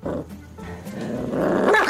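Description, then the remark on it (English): A small puppy growls steadily while guarding its food as the food is taken away with a fake hand: a low rumbling snarl that swells louder toward the end, with a few sharp yips breaking through. “It's funny to think that a small dog like this has a guarding issue.”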